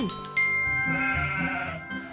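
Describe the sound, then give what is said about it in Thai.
A sheep bleats once, a loud, quavering call that wavers in pitch for about two seconds, with no voices around it. “มีแกะตัวหนึ่งค่อนข้างที่จะฉลาด เพราะรู้ตัวว่าเป็นสัตว์ที่ไม่มีอำนาจ จะต่อสู้กับใครก็ไม่ได้”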